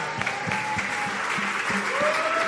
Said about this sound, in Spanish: si me lo permites, por favor, vamos a ponernos de pie para un aplauso a la familia, por favor